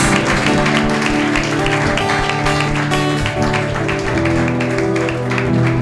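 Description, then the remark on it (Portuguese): An audience applauds steadily for the Lord, a dense crackle of many hands clapping at once, with sustained keyboard chords playing underneath throughout. “Você pode dar uma salva de palmas para o Senhor.”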